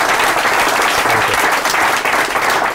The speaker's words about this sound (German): Ich bedanke mich ganz herzlich unter Applaus bei unseren fantastischen Gästen.